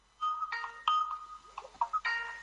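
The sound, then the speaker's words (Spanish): A phone ringtone plays a quick melodic run of bright electronic notes in several short bursts, clear, with no voices over it. “El que tiene ese teléfono sonando.”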